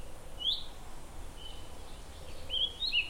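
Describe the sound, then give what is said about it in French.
Small birds chirp faintly on a very calm plot of land in open nature, a brief high call early on, then a short cluster of tweets near the end over soft background hush. “Je suis sur un terrain où c'est très calme, je suis en pleine nature, il n'y a pas un bruit, les petits oiseaux, je suis seule au monde, j'en avais besoin.”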